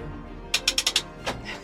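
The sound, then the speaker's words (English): A clock tower mechanism at Pentillie Castle being wound: a quick run of five sharp ratchet clicks, then a pause and a couple more scattered clicks over a low mechanical hum, with no voices. “And I'll be getting my workout for the day in the clock tower.”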